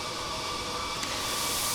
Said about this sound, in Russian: Кофемашина.